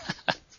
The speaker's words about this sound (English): uh, I locked my cat outside of the recording studio. That's my cat just demanded to come into the recording studio.